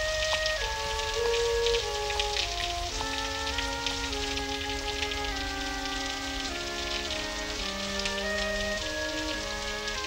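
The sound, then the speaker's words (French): Steady, dense rainfall in Cherbourg, France patters continuously throughout, a hissing wash of drops, while soft sustained musical notes play a slow melody over it. “Pour la pluie, allons donc à Cherbourg.”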